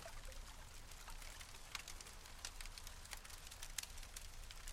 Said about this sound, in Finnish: Elävä tuli ja sen oranssin sekä punaisen sävyt vangitsevat sinut hetkeksi sen voimaan.